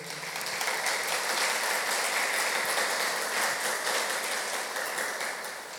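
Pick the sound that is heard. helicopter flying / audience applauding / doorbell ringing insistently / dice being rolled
audience applauding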